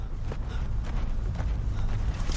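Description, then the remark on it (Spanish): Uneven, stumbling footsteps crunch quickly through snow as a man runs clumsily away from a wolf, a handful of soft irregular thuds over a steady low rumble, with no voices. “Se aleja corriendo torpemente.”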